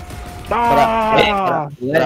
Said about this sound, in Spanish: Ahora el grito.